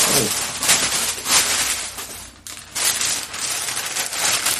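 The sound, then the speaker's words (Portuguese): Steady crinkly rustling of a bag as a cat climbs into it, a dense crackle of papery scratches that swells and dips with a brief lull midway. No one speaks. “É, peraí, que agora tem um gato entrando dentro de uma bolsa.”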